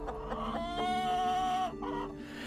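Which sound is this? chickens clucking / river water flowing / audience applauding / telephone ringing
chickens clucking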